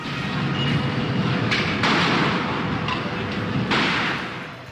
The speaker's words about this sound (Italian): Tutti hanno sentito chiaramente due spari. Sono quelli che vi faccio risentire.